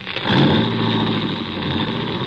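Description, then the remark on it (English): A car engine roars to life and revs hard, holding a loud, steady growl as a stolen coupe is driven off by Adrian, with no voices. “And it took ten minutes of steady concentration to get it through my throbbing head that Adrian had actually stolen my car and was gone.”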